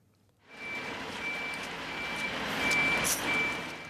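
garbage truck reversing beeps

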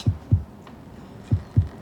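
heartbeat

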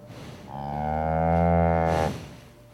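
cow mooing

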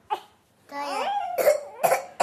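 child coughing

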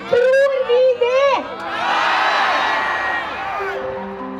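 protest crowd shouting slogans

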